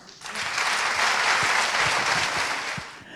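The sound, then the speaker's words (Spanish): An audience at Circo Pirata bursts into steady applause for Cristina Morán, a dense wash of clapping that swells quickly, holds at full strength for a few seconds, then tapers off near the end. “Quiero que recibamos con un fuerte aplauso a Cristina Morán.”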